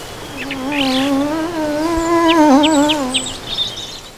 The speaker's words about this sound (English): Annoying insects buzzing in your ear and then zipping off.